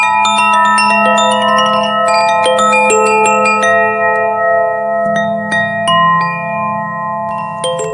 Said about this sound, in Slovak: Vrátim sa k našej téme a to je zvonkohra umiestnená vo vchode.